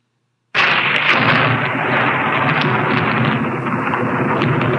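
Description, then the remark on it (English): The Castle Thunder stock sound effect, created in 1931 for the movie Frankenstein: a loud thunderclap bursts in after a brief silence and rolls on as a dense, sustained rumble without fading, with no voices present. “This is this is actually called Castle Thunder. Um, it was um, created in 1931 for the movie Frankenstein.”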